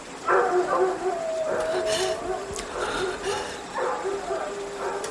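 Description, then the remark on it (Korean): A dog barks in several short bursts, some drawn out into whiny yips, moderately loud, with brief pauses between the calls, on a quiet night by a river. “강을 다 건너고 뒤를 돌아다 봤을 때 컹컹 개짖는 소리가 들려왔다.”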